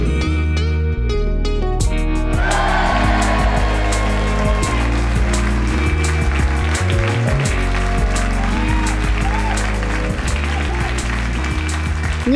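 A crowd applauds steadily for several seconds, a dense crackling wash of clapping at fairly close range, with low sustained tones lingering faintly beneath it.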